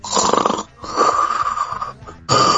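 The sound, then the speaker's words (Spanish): A voice imitates snoring with three long, raspy breaths, each a loud, wheezy drone separated by short pauses, with no talking. “Y de repente dice alguien, alguien estaba durmiendo.”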